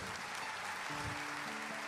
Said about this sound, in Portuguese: Todos os professores do Rema que estão aqui, fica de pé. Você pode aplaudi-los.